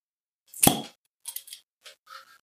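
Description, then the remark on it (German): A bottle cap clicks open with one sharp, slightly ringing snap and no pop, followed by a few faint, brief clicks and glassy rattles. No one speaks. “Das hat nicht geploppt, es läuft in die über. Aber ich klicke halt.”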